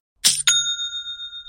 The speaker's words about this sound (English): That's the sound of another sale on Shopify in store. Shopify POS is everything you need to sell in person.